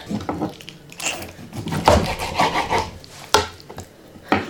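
A knife cuts chicken breast into medium-sized cubes on a cutting board in a series of uneven, rasping slicing strokes, with a couple of sharper taps against the board. No one speaks.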